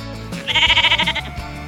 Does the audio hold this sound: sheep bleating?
yes